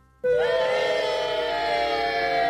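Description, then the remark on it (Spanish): A crowd booing Guadalajara bursts in abruptly and holds steady, a loud, sustained chorus of low, droning voices that continues without pause to the end. “Eh, eh, es, eh, justo te iba a pedir un, un, abucheo para Guadalajara.”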